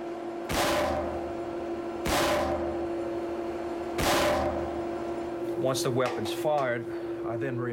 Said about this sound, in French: Nous devons nous protéger les oreilles parce que c'est très bruyant. On tire un coup de feu dans un réservoir d'eau de 3000 litres. L'eau arrête la balle sans la déformer ou y laisser de marque.